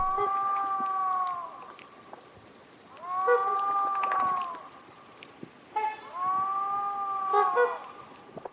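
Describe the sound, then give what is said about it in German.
A moose calls three times, each a long, drawn-out moaning cry with an arching, wavering pitch, separated by brief pauses. Fairly loud, with no talking. “Und am Ende gibt es immer unser Infotier. Diesmal gibt es das auch wieder und diesmal ist es ein Elch.”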